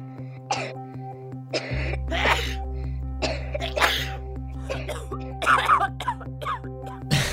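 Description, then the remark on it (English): A series of harsh coughs and throat-clearing bursts, fairly loud, repeating in uneven fits over a low steady hum, with no talking. “Already a month now into 2019, and the Christmas music may be long gone, but there are some seasonal sounds that just won't go away.”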